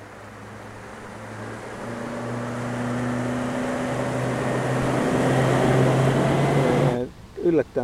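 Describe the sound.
A sound file made on a Serge synthesizer plays alone: a dense, steady electronic drone with sustained low tones, slowly swelling louder for about seven seconds before it cuts off and a voice starts talking.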